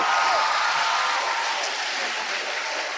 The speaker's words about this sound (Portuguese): Vocês podem dar uma salva de palmas para eles?